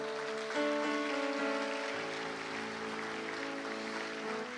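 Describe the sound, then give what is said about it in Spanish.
An audience claps loudly for the Lord in a dense, steady wash of applause that lasts throughout, with sustained keyboard chords ringing underneath and shifting partway through. “Dele palmas fuerte al Señor, hermano.”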